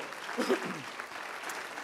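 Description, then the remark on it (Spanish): A church audience applauds the Lord during a sermon, a dense, continuous wash of clapping at moderate volume throughout, with a brief voice rising over it near the start. “Aplaudele sí al Señor.”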